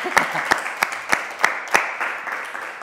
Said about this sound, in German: Ja, können wir erstmal klatschen.